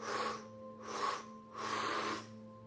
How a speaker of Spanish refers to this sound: Para eso, cuando tomas el aire, es más fácil hacerlo en tres tiempos, de manera que haces